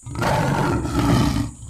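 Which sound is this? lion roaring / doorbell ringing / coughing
lion roaring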